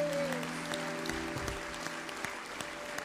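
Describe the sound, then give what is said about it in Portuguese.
A crowd claps steadily, applauding God, a dense patter of many hands, with a sustained low organ-like tone humming underneath. “Aplaude a Deus pela vida Glória de Moisés.”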